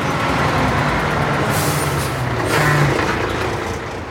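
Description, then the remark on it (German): A large truck delivering palm oil to a margarine factory in Frankendorf, Basel-Landschaft, idles and rumbles, its heavy engine droning steadily with a brief hiss of air brakes partway through, then a slight drop in the engine noise. “Grosse Lastwagen liefern das Öl an und er geht es zuerst mal aufwärts damit.”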